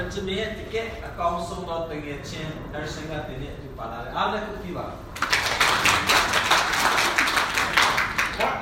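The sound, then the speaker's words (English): A voice talks for a few seconds, then a burst of clapping breaks out: a dense, rapid patter of many hands, fairly loud and steady until the end. “why did he get a clap”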